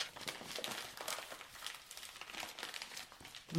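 Steady papery crinkling and rustling of hands rummaging inside a paper bag of flour while searching for a lost bracelet, spilling flour everywhere; continuous and fairly soft with small irregular bursts throughout.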